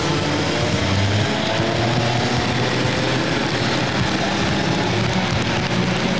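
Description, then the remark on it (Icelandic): A leading rally car's engine roars steadily while rain and road spray hiss over it, making a dense, continuous wash of engine drone and water noise with no voices. “Og ekki mingaði rigningin og enn er það Kristján, Einar Kristjánsson sem tekur fórustunan.”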